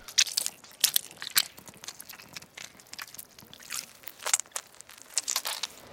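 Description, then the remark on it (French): Wet, squishy crunching of fruit such as tomatoes, grapefruit or garlic cloves being crushed as foley for gory, bloody impacts, a series of irregular juicy crackles and squelches with small drips, no voices present. “Ensuite, euh, des tomates, euh, du pamplemousse ou des gousses d'ail, ça sera parfait pour des impacts bien sanguignolants et des gouttes de sang.”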